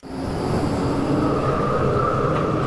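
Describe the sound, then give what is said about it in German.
Trams rumble steadily across the Luisenplatz city square in Darmstadt, a continuous loud low roar of wheels on rails with a faint metallic whine above it, and no voices. “Die Straßenbahnen rumpeln über den Darmstädter Luisenplatz.”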